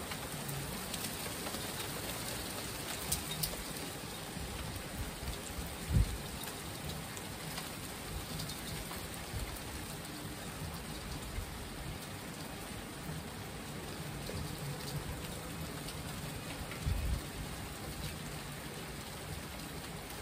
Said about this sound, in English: I'm on my balcony. Wow, it's definitely been coming down. Oh. It's not raining nearly as much anymore and there's now more cars.